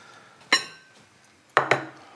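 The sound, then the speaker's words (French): Three sharp clinks of finely chopped ingredients and a utensil against a bowl already holding onions, one at first, then a quick pair a second later, with faint kitchen background and no talking. “Et je réserve dans le même bol que les oignons pour une question de pratique et de moins de vaisselle à faire après, ce qui n'est pas négligeable.”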